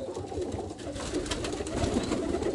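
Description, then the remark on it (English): Pigeons coo and murmur steadily in a loft, strutting about, with soft rustling and occasional wing flutters layered throughout, a continuous busy flock ambience at moderate volume. “you guys can tell me in the loft right now in the background, the birds slapping around, strutting and croaking and all that kind of stuff.”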